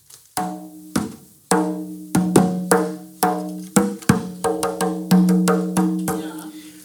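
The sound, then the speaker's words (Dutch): A frame drum, a drum without a shell made of a baked clay ring covered with goatskin, played alone in an uneven rhythm of sharp strikes, each leaving a low, humming ring with bright overtones, the hits speeding up into a quicker flurry toward the end. “het is een raam. Het is een trommel zonder ketel.”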